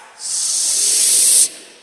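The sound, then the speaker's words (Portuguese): An audience repeating the Portuguese word "se" lets out one loud, sustained hiss, an elongated 's' sound that swells in, holds steady for just over a second, then cuts off abruptly. “É por isso que ele fala condicionalmente: se vocês podem fazer, repetir essa palavrinha só aí, como é que é? Sim. Não, agora faz chiando mais.”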